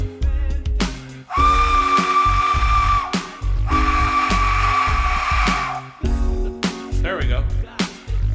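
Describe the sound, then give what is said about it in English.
A death whistle is blown twice in long, loud, harsh blasts of about two seconds each, a shrill screeching tone mixed with rushing air, with muffled voices and movement before and after. “Let me blow this death whistle again.”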